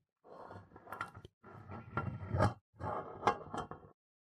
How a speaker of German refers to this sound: Da war eindeutig ein Geräusch auf dem Flur. Es war wie ein Schleifen, als würde etwas Schweres über den Boden gezogen werden, etwas Metallisches.